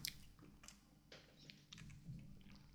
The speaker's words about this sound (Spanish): Soy un cactus, me puedo tirar todo el día simplemente con este trago de agua que he tomado. Nunca sabrás si estaba vacía o llena la botella de agua.